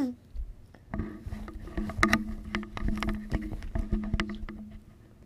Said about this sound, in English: oh, the sound squelches. is worse than actually watching it. Yeah, squelches.